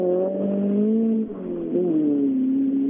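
Rally car engines drone loudly and continuously outdoors, a steady buzzing roar whose pitch dips briefly midway, then rises and settles again as the cars pass. No one speaks.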